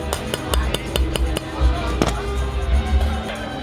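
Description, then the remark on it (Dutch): A heavy baking pot is lifted off a freshly flipped timpano, giving a series of metallic clinks and knocks over a low rumble, with a sharper bump midway. “Die enorme pispot die komt nu dus omhoog.”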